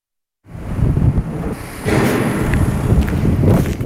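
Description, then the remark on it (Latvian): Strong, gusty wind roars, swelling after a moment, with a few scattered metallic knocks and rattles of abandoned structures on the snow-covered site of a former metallurgical plant. No one speaks. “Metālurga teritorija klājas sniegs, bet vējš klaudzina pamestās konstrukcijas.”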